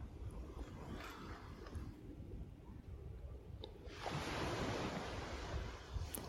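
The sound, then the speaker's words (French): Ocean waves roll in and recede with a steady wash, swelling into a louder, broad surge of surf partway through, with some wind rumble underneath and no voices. “Et puis vous allez vous laisser bercer par le mouvement des vagues qui vont et qui viennent tout comme votre respiration.”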